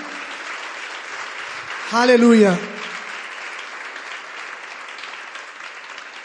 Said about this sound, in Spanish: Le podemos hacer un aplauso fuerte a su palabra.